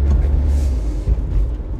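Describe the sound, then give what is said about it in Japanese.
Steady low rumble of a car engine and road noise heard from inside the cabin of a car being driven home, continuous and fairly loud with no voices. “今日は車なので寒くはないんですけど、まあ、こちらに気を取られて、えー、事故らないように気をつけて、えー、帰りたいと思います”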